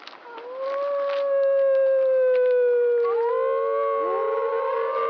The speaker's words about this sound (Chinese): Howling is one very important way how wolves communicate with each other.